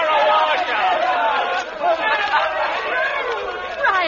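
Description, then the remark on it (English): A large crowd at a football game roars disapproval, booing a player, many voices blending into a loud, continuous jeering din that swells and holds steady throughout. “Hey, Dumplin, listen, they're booing me.”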